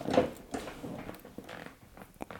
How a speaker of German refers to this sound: Bis dann, liebe Grüße und bis zum nächsten Mal aus meinem Chefsessel, auf dem ich sitze. Vielleicht hört man den, der, das Leder.